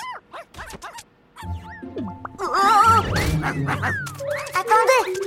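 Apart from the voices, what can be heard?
puppies barking and yipping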